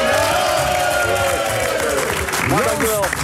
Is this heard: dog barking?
no